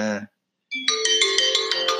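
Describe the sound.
A mobile phone ringtone plays loudly, a bright melodic electronic tune with quick repeated notes, starting after a short silence that follows a brief bit of talk.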